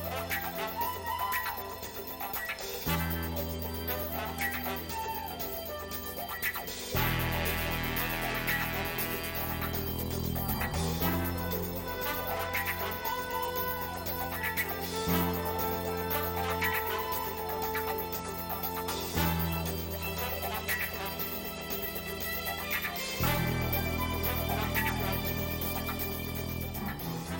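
A funky, rhythmic guitar riff with a wah pedal, its choppy sixteenth-note scratching sweeping in tone over a steady bass and drum groove, loud and continuous with no voices.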